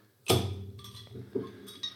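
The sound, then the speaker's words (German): Glasses clink together for a toast with a sharp knock followed by a ringing tone, then a few softer taps and clinks over the next second and a half. “So, dann Prost. Prost.”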